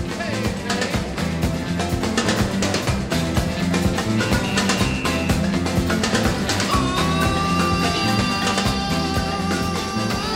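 A rock song plays steadily and fairly loud, with a full band of driving drums, bass and guitar filling the whole stretch, and no one talking over it.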